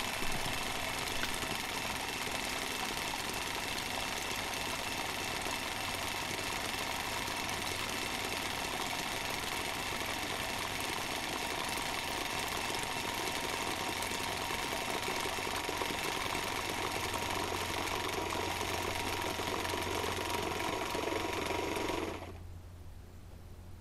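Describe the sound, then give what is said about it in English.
An electric razor whirs steadily in its cleaning station as water is pulled into the razor to wash it, a loud, even mechanical buzz and hum that runs unbroken for about twenty seconds before abruptly cutting off. No one speaks. “You can kind of hear the water getting pulled into the razor, and it's doing its thing.”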